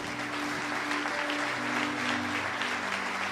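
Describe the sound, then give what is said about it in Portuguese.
An audience applauds in praise of the Lord after a fundraising campaign for a child's surgeries reached nearly 50% of its goal in 48 hours, in a steady, dense wash of clapping that holds at an even level throughout, with a faint sustained tone running underneath. “Pode aplaudir o Senhor.”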